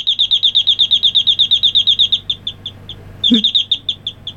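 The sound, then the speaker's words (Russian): The speaker's own doorbell chime plays a nightingale-like birdsong: a fast, evenly spaced run of bright, high chirps, clear, then a softer continuation interrupted by a dull thump. “Я, по-моему, нашел, да, вот этот вот дверной звонок, который у меня есть, и у кого-то он тоже был.”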